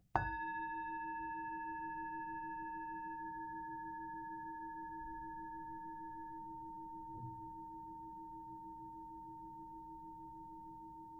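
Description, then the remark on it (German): A singing bowl is struck once and rings on with a long, steady shimmering tone, its higher overtones fading first while the deep hum sustains across the whole stretch with no voices. “Die NBA Couch Conversation Klangschale.”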